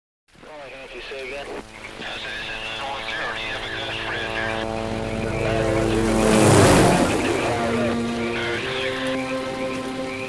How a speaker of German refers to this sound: Sieben Tage und sieben Nächte. Und es regnet. Ununterbrochen. Es regnet und es regnet. Es schüttet. Tag und Nacht.